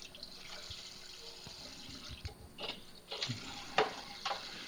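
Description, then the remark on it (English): Cold tap water runs steadily into a pot of just-drained boiled eggs to stop them cooking, a broad hissing splash with occasional clinks and sharper splatters as the stream hits the eggs inside. “I'm going to put some cold water in there to get them to quit boiling, quit cooking.”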